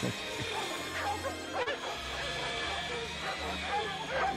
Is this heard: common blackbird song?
no